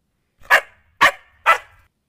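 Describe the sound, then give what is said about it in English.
Three sharp, evenly spaced barks from a small female puppy after the doorbell rang, fairly loud, each a quick bright yap with nothing else around them. “suddenly the doorbell rang and she started to bark.”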